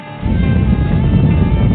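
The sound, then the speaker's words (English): A deep, loud rumbling roar of rocket engines igniting at launch surges in after a brief quiet moment and holds steady and powerful to the end, with no voices. “Ten, nine, ignition sequence start.”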